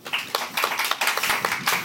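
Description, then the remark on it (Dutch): A studio audience at the Plein Publiek programme applauds warmly to welcome guest Victoria Koblenko, a dense patter of many hands clapping at once, steady and fairly loud throughout the short stretch, with no voices over it. “Mag ik alvast een warm applaus voor haar?”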